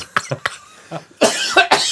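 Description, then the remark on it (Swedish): A coughing fit: a run of short, rasping coughs that start fairly light and build into heavier, harsher hacks toward the end, with no talking. “det där här kan upp och hosta ur med lungan.”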